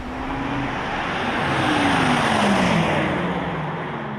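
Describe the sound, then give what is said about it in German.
An electric car's artificial engine sound (AVAS): a thin synthetic hum that slowly shifts in pitch, riding over broad tire and road rush as the vehicle swells and then eases away. “Längst sind Avas und künstlicher Motorsound zu Markenzeichen mit eigenen Alleinstellungsmerkmalen geworden.”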